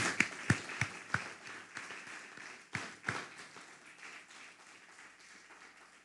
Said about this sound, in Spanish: Le damos un fuerte aplauso al Eterno porque todas las cosas.